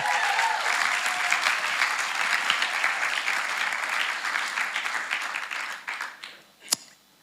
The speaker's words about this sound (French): il y a eu des gens qui ont été baptisés ici récemment, c'est juste Est-ce qu'il y en a qui sont là Ok, comment on, oh, comment on peut les applaudir